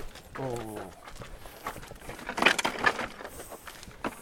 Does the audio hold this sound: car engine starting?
no